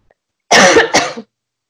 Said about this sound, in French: Je suis désolée, je m'étouffe.